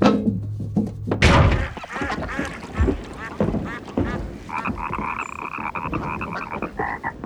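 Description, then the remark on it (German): A frog croaks over and over in quick, rattling bursts, loud, with a steadier, higher-pitched trill joining in toward the end and no one talking, on a spring night by the Havel river. “Hör mal da, ein Fröschlein quakt.”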